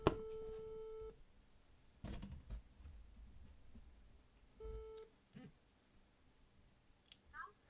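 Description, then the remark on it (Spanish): An outgoing phone call to a student on Erasmus in France rings: a steady electronic ringback tone sounds for about a second, pauses, then comes back briefly, with muffled voices and rustling in the gap. “Así que pasamos a llamarla directamente y ya no me entretengo más.”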